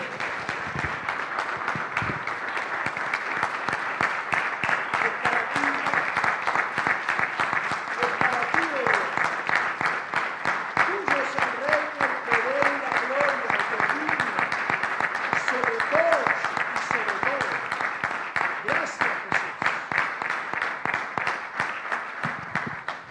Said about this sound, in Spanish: Y los que honran al Señor, denle un aplauso, vamos a recibir su palabra. Que se escuche bien fuerte.